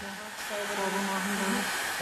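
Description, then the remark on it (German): A hair dryer blows steadily over freshly painted upholstery to keep bubbles from forming in the paint, a continuous rushing hiss with a faint whining motor hum that stays even for the full two seconds. “Mit dem Föhn verhindert die Chefin, dass sich Blasen bilden.”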